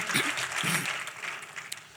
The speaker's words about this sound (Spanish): Dele un aplauso al Señor una vez más, tome asiento.